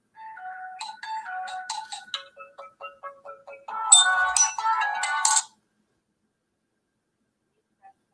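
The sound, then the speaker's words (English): A phone rings on an outgoing call to a homeowner about buying his house, with a run of bright electronic melodic beeps, then a louder, buzzier burst of tones that cuts off abruptly, leaving a few seconds of silence. No one speaks. “Let's give him a call real quick.”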